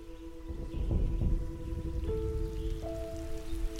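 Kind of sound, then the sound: nature, light rain drizzle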